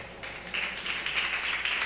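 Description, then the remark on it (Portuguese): A crowd clapping their hands in praise of God, a dense, steady patter of many claps that swells a little louder after the first moment and keeps going without a pause. “Quem veio buscar o milagre de Deus pode louvar a Deus com as palmas?”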